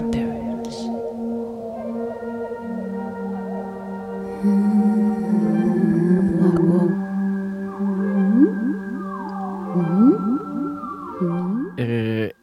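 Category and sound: song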